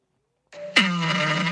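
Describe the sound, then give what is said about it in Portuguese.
A fart sound effect from the TV show Chaves: a low, buzzy tone that starts softly, then bursts louder and holds a steady, rasping drone for about a second, with no talking. “Esse é o peido mais barril do, do Chaves,”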